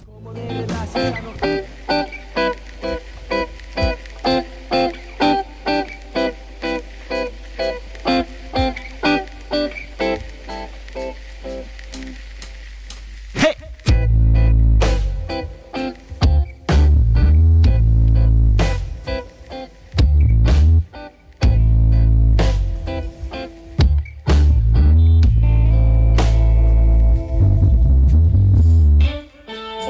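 A live band plays: a steady, repetitive instrumental groove for about fourteen seconds, then the full band crashes in loud with heavy bass and drums in punchy, stop-start bursts.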